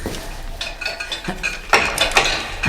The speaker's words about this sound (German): Schlüssel steckt im Schloss.